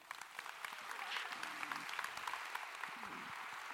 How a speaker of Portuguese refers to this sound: Quem está comigo? Dê um aplauso aí. Amém.